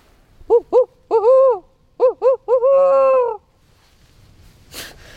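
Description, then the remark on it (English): In a small forest on Bainbridge Island, just west of downtown Seattle, a person imitates a barred owl, voicing a loud series of rising-and-falling hooting notes in a rhythmic phrase that ends in a long drawn-out hoot, followed by a brief breathy sound. “suddenly belts out the best barred owl call for me.”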